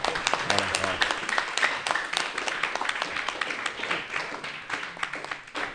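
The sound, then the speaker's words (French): A group of pupils applauding to welcome a school headmistress, a dense, steady patter of many hands clapping that continues evenly throughout, with a few voices faintly mixed in beneath the clapping. “Euh, je demande aux élèves d'applaudir quelqu'un.”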